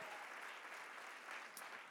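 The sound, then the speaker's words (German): A crowd at a church service in Ansbach applauds the volunteer teams steadily, a dense, continuous wash of clapping that holds at an even, full level for the whole stretch without a break. “Lass uns dem mal einen riesen Applaus geben all die ehrenamtlichen Leute.”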